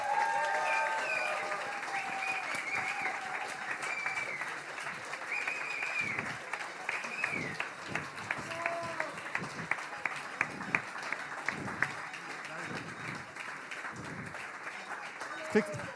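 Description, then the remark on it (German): An audience applauds steadily for the whole stretch for all the evening's performers on stage. It is a dense wash of clapping with a few sharper claps standing out, while faint voices murmur underneath. “bekommen jetzt diesen Realsatire-Jutebeutel und mit einem großen Applaus und einem Dank einen Applaus für alle Akteure des heutigen Abends.”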